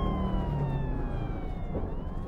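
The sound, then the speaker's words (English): An ambulance siren wails steadily, its pitch drifting slowly downward over a heavy, continuous rumble of engine and road noise, heard from the back of the ambulance as it drives to a hospital. “Riding in the back of the ambulance on the way to the hospital,”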